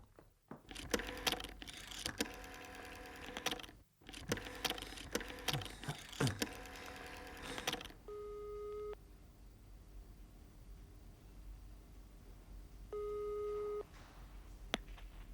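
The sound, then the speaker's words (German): Clicks and clattering of a handset and phone card being handled at a card payphone in a telephone booth, rapid tone beeps, then two long steady ringing tones on the line separated by a quiet pause, with a final sharp click. “sauste in die Telefonzelle Besenkammer, deren Fernsprechapparat neuerdings umgestellt ist auf Telefonkarten.”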